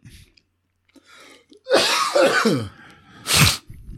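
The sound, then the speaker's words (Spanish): A strained, raspy outburst, then a brief pause and one sharp, loud cough; no one speaks. “Muy bien ahí aguantando esa tos hasta el final.”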